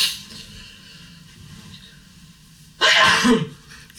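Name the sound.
blowing nose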